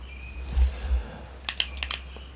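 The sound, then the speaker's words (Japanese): Four quick, sharp clicks in two rapid pairs as a 3-minute timer button is pressed to start drawing, with low background rumble and no talking. “では3分1番から書いていきます。3、2、1ポチッと”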